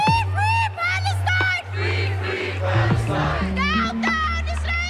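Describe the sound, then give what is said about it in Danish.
A large protest crowd waving Palestinian flags shouts and chants Arabic slogans together in the streets, voices rising in loud, rhythmic bursts, with a steady low hum running underneath throughout. “Store demonstrationer med palæstinensiske flag og arabiske slagord har fyldt i gaderne de seneste uger.”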